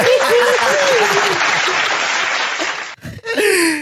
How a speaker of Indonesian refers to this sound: kasih tepuk tangan dulu buat gue lah